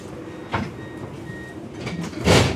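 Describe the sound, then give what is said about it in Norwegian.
Steady low rumble of riding inside a moving train, with a brief rattling swell early on and a louder rushing burst near the end; no one speaks. “Og nå sitter jeg på toget med mappa til Ingrid foran meg.”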